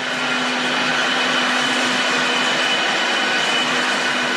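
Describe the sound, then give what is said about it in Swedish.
A wool spinning machine at a spinnery in Finland running loudly, its electric motor driving an axle through the whole machine with 60 pulleys; a steady, dense mechanical roar and whir with a constant low hum and a thin high-pitched whine layered on top, no voices. “elmotorn, drar Axel som går genom hela maskinen och här alla 60, var det 60 trissor?”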